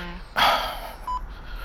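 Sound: voicemail beep tone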